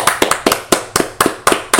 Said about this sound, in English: Round of applause for the Thule forms.